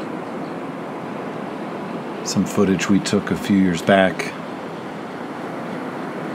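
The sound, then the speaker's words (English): A steady, even rush of Atlantic Ocean surf on a beach at sunrise during spring break fills the whole recording, with a person speaking briefly over it partway through. “If you're watching this on video, you'll notice that we have a nature scene, a beach”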